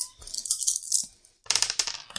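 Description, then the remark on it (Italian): Six dice rattle and clatter in two bursts, a busy run of sharp clicks, a brief pause, then another quick tumble of clattering dice. “Sono sei dadi.”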